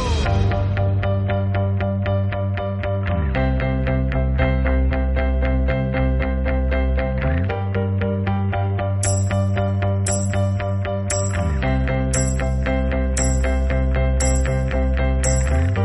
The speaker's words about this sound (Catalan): us deixem amb la cançó inicial de Anet, de Leos Carax…